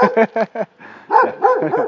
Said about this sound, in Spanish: habéis sentido, eh, ha, comenzado, ha comenzado a ladrar, ¿no? Porque, claro, aquí los perros defienden su territorio, ¿no? Las, defienden las casas, ¿no? Pero no son, no son, no son, no son malos, ¿eh? No son malos.